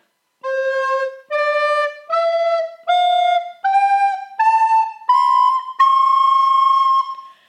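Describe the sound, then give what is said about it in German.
A rising scale of eight sustained, harmonically rich notes played on recorders from low to high, each stepping higher than the last, played steadily and fairly loud with brief gaps between notes, one note slightly off, and no talking. “wir spielen mal eine ja mal... Tonleiter.”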